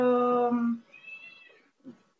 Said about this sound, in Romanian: Se aude o pisicuță, da?